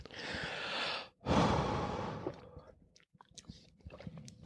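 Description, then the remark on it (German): Two deep, airy breaths, a long inhale followed after a brief pause by a heavy, sighing exhale, then faint mouth clicks and quiet rustling. “wir atmen dreimal durch und dann fangen wir nochmal ja. oben an.”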